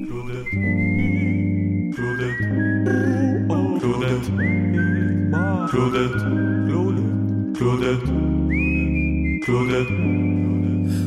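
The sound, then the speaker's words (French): The instrumental opening of a song about Montreal poutine: a whistled melody glides over steady, full bass chords, punctuated by loud drum hits that land every couple of seconds. No singing yet. “On va aller s'écouter euh, … qui nous chantent qui nous chantent les bienfaits de la poutine de chez Claudette”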